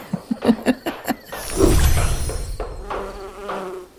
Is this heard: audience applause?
no